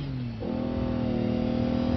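A car engine hums steadily, then its pitch jumps higher and holds as the car calmly accelerates away from pursuers, a fairly loud drone with no talking.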